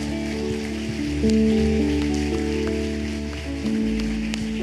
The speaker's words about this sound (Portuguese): Levante suas mãos, dê um aplauso bem gostoso.